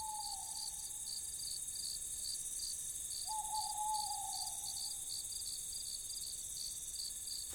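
An owl hoots twice, a short call at the start and a longer, wavering one midway, over a steady, pulsing chorus of crickets in a quiet night setting.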